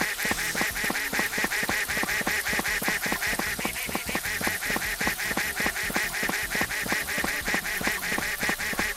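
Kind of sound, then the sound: animal, duck quacking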